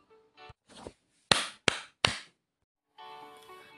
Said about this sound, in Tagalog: Tapos na ba mga bata? Kung tapos na, pumalakpak ng tatlo.